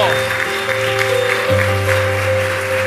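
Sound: audience applause and cheering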